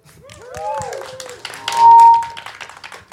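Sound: audience applause and cheering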